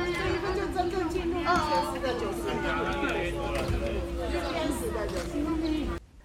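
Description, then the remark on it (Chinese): Dense, lively crowd chatter of very many excited people gathered to watch a solar eclipse on a very hot day, many overlapping voices and bursts of excited exclamation, steady and loud throughout, over a constant low electrical hum. “你可以听到，嗯、呃，现场有非常非常多的人，那大家都很兴奋。”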